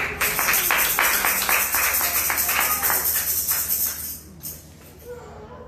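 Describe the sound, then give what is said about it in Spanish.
An audience at a church service claps together in a steady, rhythmic beat in praise of Jesus Christ, loud and dense for several seconds before fading out quickly, leaving near quiet at the end. “Dele palmas a Jesucristo si cree que se le viene.”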